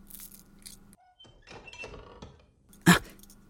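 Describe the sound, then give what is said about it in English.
A door bangs once, sharp and fairly loud, near the end, after a few seconds of quiet shuffling and faint creaks. No one speaks. “What was that? It sounded like a door.”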